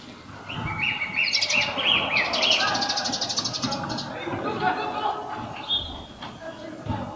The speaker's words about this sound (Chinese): 回到宿舍，站在阳台上，呆呆地听着鸟儿叫声，篮球场打球的声音传了过来。